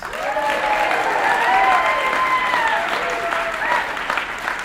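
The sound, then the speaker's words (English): A roomful of people at a recovery meeting claps steadily for several seconds to thank the night's speaker, the applause dense and sustained, with a few raised voices or cheers threading through it. “Let's thank tonight's speaker,”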